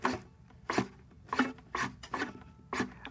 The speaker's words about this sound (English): that's me just sliding my fingers on the fingerboard. I don't know if anyone can hear that or not. Sounds a little bit like, you know, on guitar. Right. That yeah. The, the guitar shifty sound.